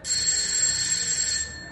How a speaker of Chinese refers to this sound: 下午一点，卡伦拿着一盒马卡龙站在莱茵街四十五号门口，旁边坐着一只猫和一条狗。卡伦走上前，按响了门铃。